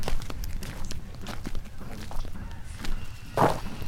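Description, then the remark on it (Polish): Footsteps crunch and rustle through dense brush and thickets, an uneven shuffling rhythm with crackling twigs and leaves, one sharper snap near the end. “bo my tak tutaj się trochę kręcimy po takich gąszczach, krzaczorach i czasami jakieś takie dźwięki się wydobywają.”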